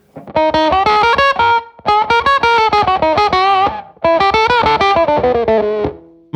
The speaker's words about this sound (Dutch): Octavers, die doen het eigenlijk het meest in het midden van de hals. Ja, ja. Ja, die, die, die, die, die hoge octaaf.